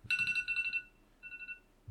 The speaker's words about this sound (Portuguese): vai o alarme.